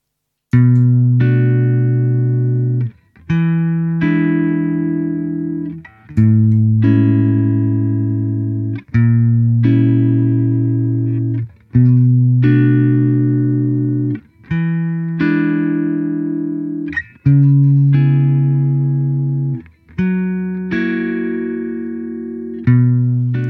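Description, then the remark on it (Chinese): Clean electric guitar chords played through an effects unit with no reverb applied, about eight strummed chords each ringing roughly three seconds and cut off sharply with no tail. Steady, even loudness and no voices. “首先呢，我们先弹一个没有任何混响效果的轻音的吉他声音。”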